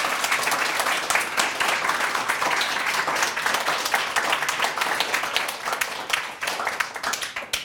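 A room full of people claps steadily, a dense, even wash of many hands sustained for several seconds without pause, close and fairly loud with no voices over it.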